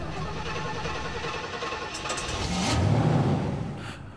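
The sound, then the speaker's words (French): A car engine hums as the car is guided into a parking spot, its low rumble swelling and revving briefly around the middle as the vehicle creeps and shifts, then easing back toward a steady idle. “طومبيل جاية غادي نبلاصيوها عندنا هنا اجي عندي زيد زيد زيد”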